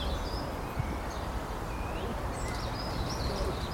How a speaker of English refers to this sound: And behind me, in a little copse of trees, birds are singing.